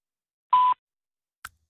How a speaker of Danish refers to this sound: Velkommen til telefonsvaren. Venligst indtale en besked efter biptonen.